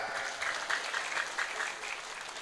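A crowd claps steadily, a dense wash of many hands with a quick irregular patter and slight surges in loudness, no voices standing out.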